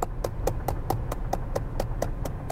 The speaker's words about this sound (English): Can I get a round of applause?